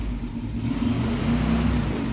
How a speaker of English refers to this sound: I'm going to be turning over that 1957 Buick Special. I think you might even be able to hear it